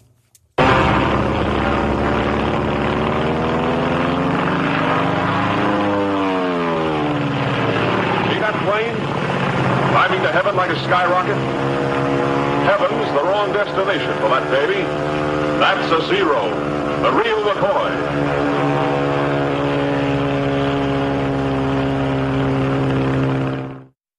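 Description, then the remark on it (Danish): A loud Japanese Imperial Navy Zero propeller fighter plane engine roars steadily throughout, its droning pitch swooping down and back up early on as if the aircraft banks or passes by. “Det er en zero.”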